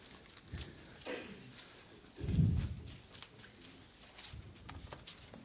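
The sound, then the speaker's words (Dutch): Soft, scattered rustling of Bible pages being leafed through by several people looking up 2 Chronicles chapter 7, verse 16, with faint clicks and one duller thump midway; no one speaks. “Ik hoor de pagina van de Bijbel.”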